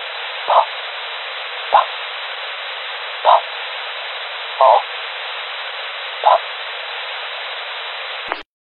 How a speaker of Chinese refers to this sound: 无线电里发出了白噪音。